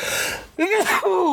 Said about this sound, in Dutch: Ik ga ondertussen nog eens niezen voor jullie en de luisteraars.